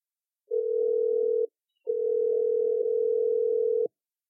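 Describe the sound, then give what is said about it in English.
A steady, low telephone dial tone sounds alone while a phone call is placed to Cherie Priest for an interview, cutting off for a moment after about a second, then resuming for roughly two seconds before stopping abruptly. No voices are heard. “so uh, let's get get to our interview okay so let's get cherie on the phone”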